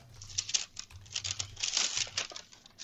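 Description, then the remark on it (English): Crisp crinkling and rustling of a paper bag holding non-crunchy chocolate being handled, with irregular bursts of crackle over a few seconds and no speech. “It is in a paper bag, which is not great for the audio.”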